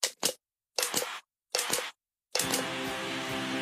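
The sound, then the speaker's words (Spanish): A new Cristal brand Ecopack plastic water bottle, 100% recycled and 100% recyclable, crackles as it is squeezed in three short, crisp bursts, followed by a longer steady crinkling with a faint ringing tone, with no voices. “Hemos descubierto que detrás del sonido que produce la nueva botella Ecopack 100% reciclada, 100% reciclable de agua cristal, se esconden otros sonidos de sus vidas pasadas.”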